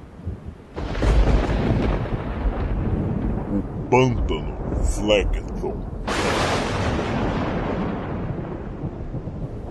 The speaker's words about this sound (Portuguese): Chove no inferno, chove o tempo todo. E essa água tem que ir para algum lugar.